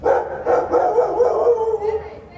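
A dog barks several times in quick succession, fairly loud, its yips running together with a whiny edge before trailing off.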